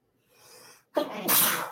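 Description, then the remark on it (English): A single loud sneeze: a soft breathy intake builds, a brief pause, then a sharp explosive burst with a hissing, spraying release. “Bless you. Bless you.”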